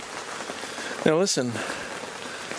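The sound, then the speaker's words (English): Steady rain patters on a tent in Quebec, a dense, even hiss of drops that continues throughout, with a man's voice briefly speaking over it partway through. “It's the sound of uh, rain coming down on a tent.”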